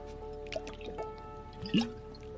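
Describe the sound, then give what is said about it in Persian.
Someone drinks water: a few soft, wet sips and liquid clicks, then one louder gulping swallow near the end, with no talking. “از این آبم بخورم”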